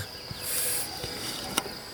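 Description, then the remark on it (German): A brief, soft hiss of air sucked through the tube of an insect aspirator, drawing a cicada (a blood cicada) out of a sweep net, followed by a small sharp click, all fairly quiet against faint outdoor background noise on a morning in the Jura. “Ein sogenannter Exhaustor. Also ein extra ist so ein Gerät, mit dem äh, Zikade aus dem Kescher raussaugen kann.”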